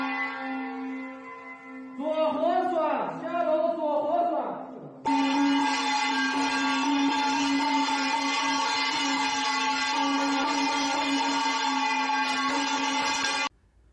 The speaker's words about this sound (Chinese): 昨天在天津出现了这么一幕。也是网友呢发给我的一段独家视频。这个视频中显示，身穿白色隔离服的人进入到了居民楼栋里面，拿着铜锣对着住户的门使劲的敲。